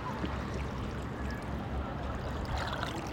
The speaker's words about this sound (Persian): مثلا صدای کنار رودخونه بودن یا صدای کنار دریاچه بودن همیشه صدای قلقل کردن آب